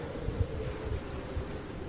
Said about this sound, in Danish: Og det blæser godt nu, synes jeg, ikke?